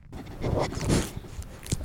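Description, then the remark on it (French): Elton, a dog, licks its chops at home, a run of wet, irregular smacking and slurping clicks over about two seconds, fairly steady in loudness with a couple of sharper bursts, no voices. “Ah ouais, je sais Il se lèche les babines parce que tu as cuisiné.”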